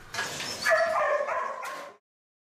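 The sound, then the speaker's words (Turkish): Several dogs at a dog hotel bark and yelp together in a continuous, overlapping chorus for about two seconds, fairly loud, with some higher whimpering yips mixed in, then it stops abruptly. “Hem yaz hem de bayram tatili olduğu için köpek otelleri en yoğun günlerini yaşıyor.”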